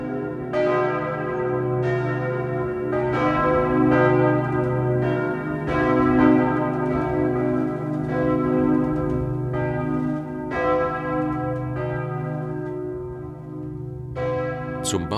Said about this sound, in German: Das Geläut auf den zwei Osttürmen besteht aus zehn Glocken.